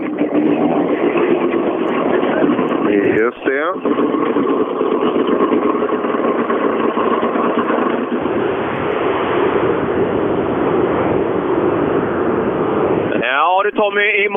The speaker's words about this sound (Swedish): Och nu, nu kommer den här. Titta. En av väldigt få rallybilar i Sverige som har en stjärna mitt fram på motorhuven.